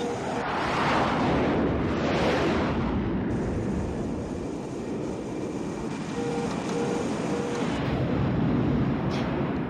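A continuous, heavy roaring rumble of a volcanic eruption, with dense low-end energy and rushing noise, swelling in two broad surges early on, with no voices. A probe placed earlier in the once-extinct volcano makes the mountain spew fire again.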